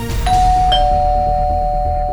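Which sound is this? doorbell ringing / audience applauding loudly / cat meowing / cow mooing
doorbell ringing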